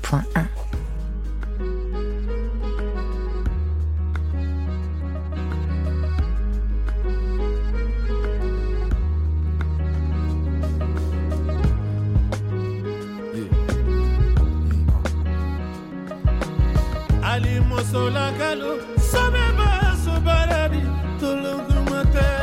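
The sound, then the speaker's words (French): A musical interlude plays on the radio station Allegre FM 93.1: a full song with heavy bass notes, steady beat and layered instruments, loud and continuous throughout, with busier percussive hits building toward the end. “Je vous euh, propose un premier intermède musical”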